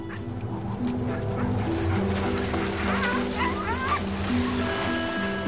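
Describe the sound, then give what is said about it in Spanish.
A pack of sled dogs from Shackleton's expedition at McMurdo Sound, Antarctica, barks, yips and whimpers all at once in a dense, continuous chorus, with several high-pitched yelps rising above the din, steady throughout. “Shackleton probó los perros, pero cegado por su entusiasmo por ellos, había pasado por alto que nadie de su equipo sabía manejarlos.”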